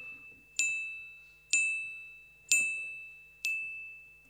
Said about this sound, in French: C'est cinq coups de carillon quand même.